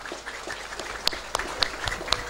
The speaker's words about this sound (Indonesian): keluarga besar Petruk tepuk tangan dulu dong